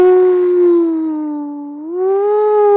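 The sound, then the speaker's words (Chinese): A single long, monotonous wailing cry heard in the empty Cining Palace garden, steady and low-pitched, sagging slightly midway before lifting again, sounding mournful and howl-like, on its own with no talking. “呜，哭声单调而绵长，弄得人听得都不由得悲伤起来。”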